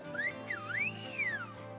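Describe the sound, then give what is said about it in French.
A single clear whistle in a whistled language glides up and down in pitch over a couple of seconds, heard alone against a low steady background hum. “La langue sifflée retrouve non seulement une vie, mais aussi une utilité bien différente de celle des anciens.”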